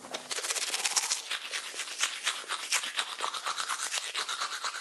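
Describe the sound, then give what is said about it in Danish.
Brisk toothbrush scrubbing against teeth, a steady rapid back-and-forth of bristly strokes continuing throughout with no speech. “da tandbørsten bliver udbredt, får det store positive konsekvenser for os mennesker.”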